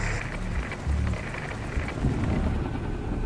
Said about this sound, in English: We're in a cutscene. Cape Town, 1986. Going helicopter. I can't see anything this rain.